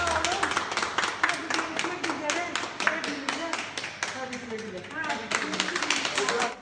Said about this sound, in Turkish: meslektaşlarının alkışları arasında görevine döndü.